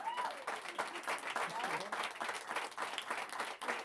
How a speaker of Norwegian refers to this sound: Og ja Kanskje en applaus.